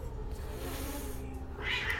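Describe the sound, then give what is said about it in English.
A voice imitates a woman's chanting as a cat's hiss through clenched teeth, a steady breathy rasp lasting about two seconds that sharpens and grows brighter toward the end, with no words. “Her chanting sounds like like wind through the trees or the building hiss of a cat, but it's like through her teeth.”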